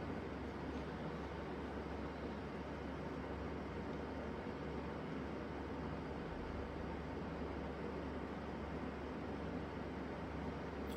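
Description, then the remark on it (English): Heavy machinery repaving the asphalt parking lots of an apartment complex, heard through a closed door, gives a steady, continuous low rumble with a broad noisy hiss over it. The level stays even throughout, with no voices and no distinct individual events. “They're totally redoing the asphalt uh, parking lots at our apartment complex. So you may hear a lot of those sounds even coming in through the closed door.”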